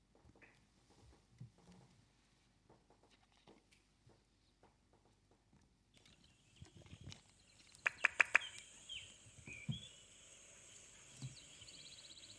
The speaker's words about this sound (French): Ce sont les bruits d'oiseaux, hein, c'est normal.